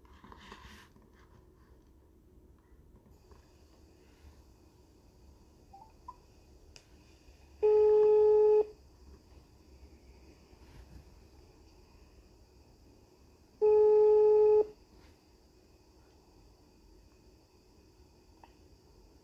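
Two ringback tones from a phone call, each about a second long and six seconds apart, a steady mid-pitched buzzy tone rich in harmonics, over faint background hiss with no talking.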